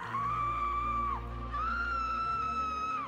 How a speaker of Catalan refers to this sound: Però, de sobte, un crit trenca la monotonia d'aquella casa.